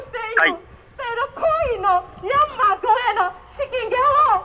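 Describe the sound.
A protest demonstration recorded that day, protesting the Myanmar military government's persecution and calling for stronger sanctions on Myanmar: loud, wavering shouted chants rise and fall in several bursts with brief pauses between, voices strained and slightly echoing as if heard through amplification.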